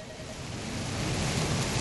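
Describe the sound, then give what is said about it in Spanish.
A steady rainfall sound effect opening a song hisses across the whole clip, a dense, even wash of droplets that swells slightly louder after the first second, with no voices. “Ahí va, ahí va, espérate, espérate, espérate, porque ya empezó a llover.”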